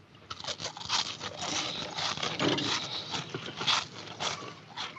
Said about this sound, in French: Je voulais vous montrer ce que c'est que de faire du bruit en mangeant.